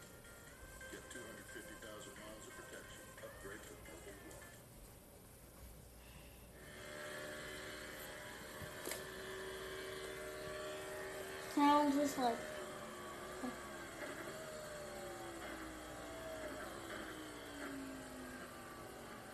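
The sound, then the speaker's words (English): Racing car engines drone and whine through a simulated iRacing lap of the NASCAR Daytona Road Course layout, their pitch rising and sliding down as cars pass, with a man talking intermittently over the steady engine noise. “And take a lap around the iRacing around the Daytona Road Course layout, which will be part of now the new revamped August schedule.”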